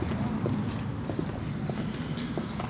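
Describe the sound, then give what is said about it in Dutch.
Steady footsteps walk outdoors in sunshine after forecast rain, at a brisk, even pace, each step a short crisp tap over a constant low rumble of background noise. “We lopen nu eh, door de inmiddels weer stralende zon.”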